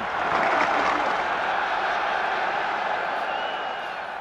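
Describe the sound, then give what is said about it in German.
Sustained applause from a crowd of about 10,000 at a figure skating event as Manfred Schnelldorfer finishes his free skate: a dense wash of clapping that holds steady for several seconds before easing slightly, with a faint murmur of crowd noise beneath. “Manfred Schnelldorfer beendet seine Kür und Beifall für Manfred.”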